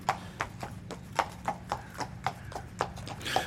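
Steady clip-clop of a young horse's hooves striking hard ground in an even trotting rhythm during a gait presentation at a breeding competition, about a dozen sharp hoofbeats over a low background rumble, moderately loud.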